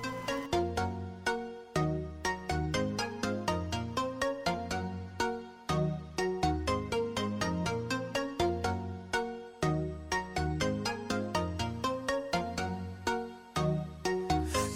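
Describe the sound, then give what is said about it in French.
Instrumental pop intro: a bright, plucky synth melody in quick, steady repeated notes over a pulsing bass line, loud and upfront, with no singing yet. “une petite pause musicale avec … qui ne peut plus se séparer de son téléphone”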